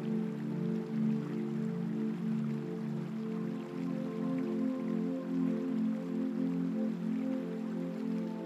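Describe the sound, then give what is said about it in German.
A steady wash of flowing river water, constant and unbroken, with a soft low rumble and a light trickling texture. No voices are heard. “Lausche dem Klang des Wassers und tanke deine Energie auf.”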